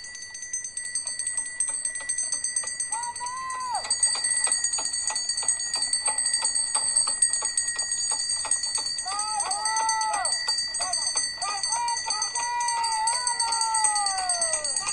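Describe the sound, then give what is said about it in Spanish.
A small bell rings continuously with quick, repeated jingling strikes, bright and lasting throughout, on one of the descent trails of Cerro Belvedere during a trail race, with faint warbling outdoor sounds underneath. “El sonido de la campanilla, de la campanita, ahí, en este caso, en uno de los senderos de descenso del Cerro Belvedere, recuerda mucho a las grandes carreras europeas, porque allí se usan los encerros eh, en los Alpes para llamar al ganado.”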